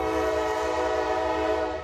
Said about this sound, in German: Ein langer Güterzug fährt durch abgelegene Täler und Berge. Es sind eigentlich eher hohe Hügel, völlig bedeckt mit Bäumen. Die Appalachen, die lange Bergkette im Osten der USA.